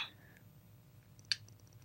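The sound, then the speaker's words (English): Soft chewing of a sardine with quiet wet mouth sounds and a low, muffled rhythm, broken by one sharp click partway through; no one speaks. “I'm going to eat it. I guess. I'm going to chew.”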